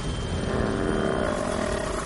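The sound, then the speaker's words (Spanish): A helicopter roars loudly as it approaches snowy ground, raising a mist; a steady dense drone of engine and rotor with a faint whine on top, holding constant throughout with no voices. “El helicóptero se aproxima a la superficie nevada levantando una neblina.”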